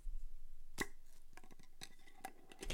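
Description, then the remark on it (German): A 350 ml glass bottle of 25% liqueur from O'Donnell Moonshine GmbH, Berlin, being opened: a sharp glassy click, then a quick run of small ticking snaps and clinks from the cap, with no one speaking. “Ich mache das jetzt mal auf. Hoffentlich macht es ein schönes Geräusch.”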